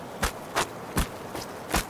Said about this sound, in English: The barrel of the gun wavered, and I was poised to strike when we both heard it. Footsteps on the path. Quiet.